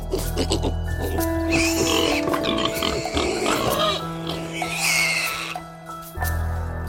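Pigs grunt and oink repeatedly, with rough squealing bursts over a steady humming, tonal background that cuts out briefly near the end.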